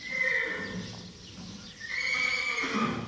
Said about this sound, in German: ein reinrassiger Lusitano-Hengst. Er wird jetzt sechs Jahre alt. E ich hoffe, ich kann ihn am Samstag zum ersten Mal einsetzen. Er ist schon sehr gut, wird mal ein großer Kämpfer.